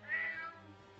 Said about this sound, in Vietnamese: Cộng với đó là tiếng mèo gào rú lên trong gian buồng làm cho Hằng rụng rời cả chân tay.